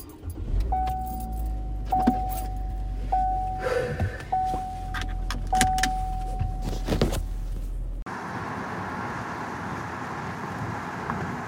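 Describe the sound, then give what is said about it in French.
Keys jangle and clatter inside a car on a day that is not too cold, over a low engine rumble, with an intermittent beeping chime, before the sound switches abruptly to a steady, airy hiss. “Ok, je suis dans la voiture.”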